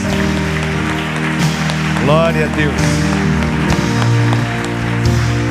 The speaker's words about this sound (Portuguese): Dá uma salva de palmas para Jesus. Vamos aplaudir a Jesus.